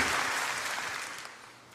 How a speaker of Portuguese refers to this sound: Pode dar uma salva de palmas, pode dar um glória a Deus aí, dá um aleluia em nome de Jesus.